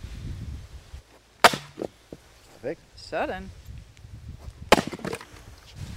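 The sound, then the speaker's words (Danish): Two sharp, loud cracks of an axe as boys split damp logs for firewood, a few seconds apart, with brief splintering after each blow and a person speaking briefly between them. “som drengene er gået i gang med at, at flække op til noget brænde”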